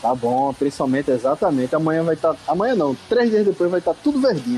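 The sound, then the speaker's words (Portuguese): Steady rain hisses softly in the background in the sertão, the first rain there in two years, a continuous fizzing wash that runs beneath two people talking throughout. “tinha dois anos que não chovia, hoje tá chovendo e vocês vão ouvir um barulhinho de chuva no fundo aí.”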